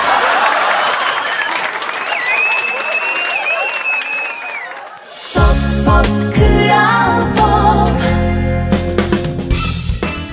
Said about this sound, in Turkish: Hadi yapmayın tamam tamam. Alkışların dijital efekt olduğunu ben de biliyorum.